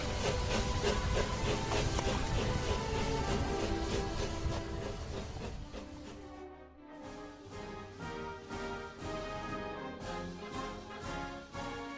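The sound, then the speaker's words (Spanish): A steam locomotive hisses loudly with a dense rush of steam, then settles into a steady rhythmic chugging with regular puffs, with no voices. “Se inventó la máquina de vapor, el ferrocarril y los barcos a vapor.”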